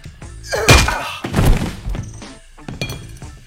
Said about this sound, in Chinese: 就在此时，女的趁机抄起酒瓶将他砸晕